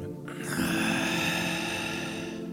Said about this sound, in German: Wir beginnen mit einer ganz einfachen Atemübung Einatmen und ausatmen.